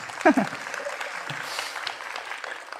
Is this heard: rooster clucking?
no